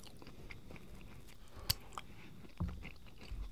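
Quiet chewing on edamame: soft wet mouth clicks and small crunches, one sharper snap partway through, with a few low muffled thumps near the end and no talking.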